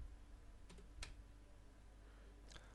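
A few sparse computer keyboard key clicks as the word plagiarism is typed into a web browser, three or four brief taps spread over a couple of seconds, heard faintly against a steady low hum with no speech.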